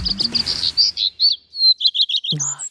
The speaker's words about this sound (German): Achtung, so klingen die ersten Vögel des Tages. Hausrotschwanz und Gartenrotschwanz